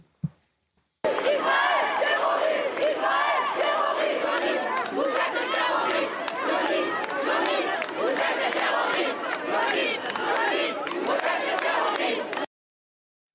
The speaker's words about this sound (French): la séquence de la manifestation parisienne hier